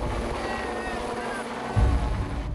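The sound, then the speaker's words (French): A helicopter carrying the president away from the presidential palace over Buenos Aires in late 2001, its rotor giving a steady low, pulsing thump under a broad engine roar, with a brief louder surge near the end. “Le président Fernando de la Rua s'est échappé du palais présidentiel en hélicoptère.”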